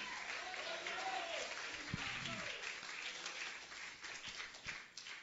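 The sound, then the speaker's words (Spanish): Sustained audience applause, a dense steady wash of many hands clapping throughout, with a few sharper individual claps standing out and faint voices mixed underneath. “Dámelo un aplauso aquí si pueden en esta hora.”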